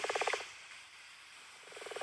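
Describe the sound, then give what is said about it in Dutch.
A brown frog gives two short bursts of rapid, purring pulses, one at the start and one near the end, fairly quiet against a steady background hiss with no one talking. “is het stiekem toch een bruine kikker. En hij klinkt dus zo.”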